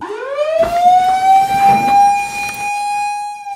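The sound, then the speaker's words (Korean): A wildfire alert siren, sounding that a forest fire has broken out as forest firefighters get ready to deploy, winds up from a low pitch and settles into a loud, steady wail that holds to the end, with brief background noise around the middle and no voices. “산불이 발생했다는 경고음이 울리면 삼림 소방대원들은 곧장 출동 준비에 들어갑니다.”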